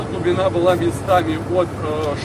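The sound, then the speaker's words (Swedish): A convoy of trucks, led by the Russian president driving an orange truck, honks on the roughly 18 km Kerch Strait bridge linking Russia and Crimea on 15 May 2018: several short horn blasts in an uneven rhythm over a steady low rumble of heavy engines. “Och nu kör presidenten längst fram i en tutande konvoj av lastbilar.”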